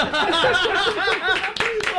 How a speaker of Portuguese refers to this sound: salva de palmas, Catiele Lanzini, no bem bolado.